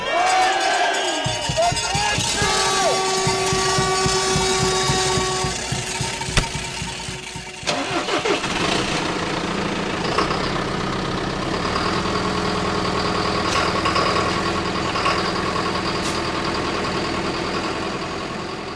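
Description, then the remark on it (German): A tractor engine starts up and settles into a steady, loud idle, its rumble continuing throughout with a shift in tone partway through. “Traumjob auf dem Traktor, die Zukunft auf bayerischen Bauernhöfen.”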